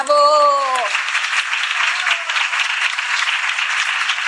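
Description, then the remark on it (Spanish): A brief falling, voice-like tone gives way to loud, dense applause for El Heraldo de México, celebrating at Heraldo Media Group. The applause continues steadily for several seconds with an even, hissing texture and no clear individual claps. “Efectivamente, de verdad que vengan unos aplausos para el Heraldo de México.”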